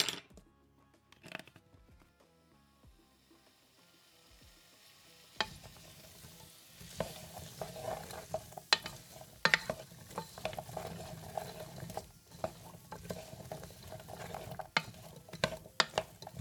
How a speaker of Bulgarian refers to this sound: Всички нужни зеленчуци са там, затова ги заливам с малко мазнина и ги задушавам за 10 минути.